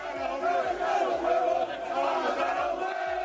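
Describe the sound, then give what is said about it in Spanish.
A large crowd of Valencia fans at Mestalla stadium shouts in angry protest against the players and Peter Lim, waving handkerchiefs in the stands: a dense, sustained roar of many voices chanting together with rhythmic low thumps underneath, loud throughout. “Gritos contra Peter Lynn, gritos contra los jugadores, Rafa Villarejo, la gente está harta.”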